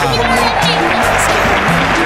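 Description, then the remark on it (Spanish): Steady, dense applause fills the whole clip at an even, loud level, with some tonal, voice-like sounds underneath. “Aplauso.”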